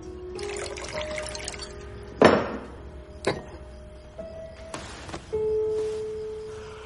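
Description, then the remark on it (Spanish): An actor sitting in an armchair pours himself a drink into a glass, with a few sharp clinks of glass and a faint liquid trickle whose ringing tone shifts as it fills, with no voices. “Más tarde está sentado en un sillón y se sirve una copa.”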